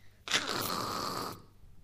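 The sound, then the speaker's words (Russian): A voice imitates a rusty nail scraping across a car hood: one harsh, raspy, high-pitched screech held for about a second, fairly loud, with no talking. “Но если вы купили машину, и кто-то подошел ржавым гвоздем по капоту так вот.”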